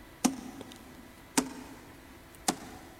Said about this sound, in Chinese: 在他翻到最后一页的时候，听到了敲门声。